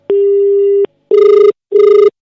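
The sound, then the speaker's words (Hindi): A phone line emits a steady electronic tone for under a second, then two short buzzing ringback pulses of an outgoing call from a grocery store to a customer, loud, with no voices. “चलो फोन”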